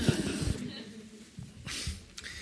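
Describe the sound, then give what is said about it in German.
A quiet pause filled with soft breathy sounds and a couple of faint gulps as someone takes a sip of water and swallows, with a short exhale between. “Ähm, muss ich erstmal einen Schluck Wasser trinken.”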